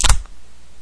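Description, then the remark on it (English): A single sharp plastic knock, a hard ka-chunk of a plastic flash drive striking another plastic piece, loud, followed by a faint second tap and then quiet room tone. “the ka-chunk was plastic on plastic, and um, it was my flash drive”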